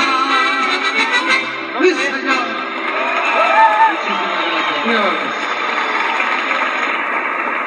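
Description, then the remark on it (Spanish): Steady, dense applause from an audience after a song performed by a musical group, mixed with a wash of cheering voices and a few rising whoops, loud and continuous without letting up. “Los aplausos son para ustedes.”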